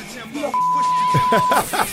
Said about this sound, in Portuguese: É, a trilha ah. do Grande é. Dragão Branco aí. Atenda o telefone,